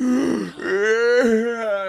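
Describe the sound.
A person mimics a long, drawn-out yawn, a groaning voiced sound that rises and sustains for about two seconds, fairly loud, with no other talking.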